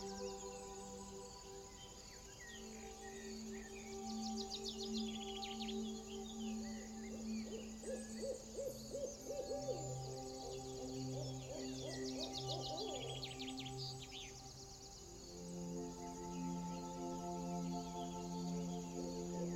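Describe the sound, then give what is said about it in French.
Faint, distant bird calls chirp in scattered bursts over a soft, sustained musical drone, with no voices present. “Laissez-vous simplement guider par les sons. Les notes de musique le chant lointain des oiseaux.”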